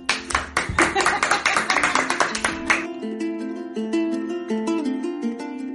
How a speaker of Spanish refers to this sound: Aplausos.